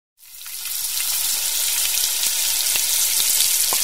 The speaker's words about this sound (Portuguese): Até que faça aquele barulhinho maravilhoso, talvez o barulho mais bonito da cozinha, sem edição, sem música, sem trilha sonora, sem nada, só o barulho da água sobre a frigideira quente.